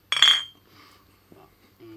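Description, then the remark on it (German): A bright, ringing clink of glasses knocking together in a toast, fairly loud, fading out quickly, followed by faint murmuring and a brief low voice. “So, Jungs, erstmal Cheers. Ja. Prost.”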